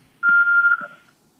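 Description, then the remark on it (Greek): A loud, steady electronic phone-line tone sounds once for under a second as a call drops, with a couple of faint low thumps underneath and no talking. “Έπεσε.”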